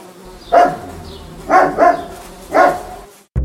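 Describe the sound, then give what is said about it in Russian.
A faint buzz of a big hairy fly, then a puppy named Fyodor, startled by the fly landing on its nose, barks very loudly: one sharp yap, a quick double bark, then one more, with short pauses between them and no talking. “На прогулке Федору прямо на нос села огромная мохнатая муха – Щенок от испуга очень громко залаял.”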